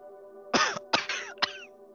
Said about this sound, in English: James is sitting next to Mary's bed in what is probably their home. Mary. Mary coughs a couple of times.